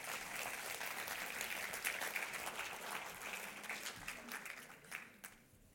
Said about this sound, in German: Hey, war so cool. Geben wir Ivana einen Applaus.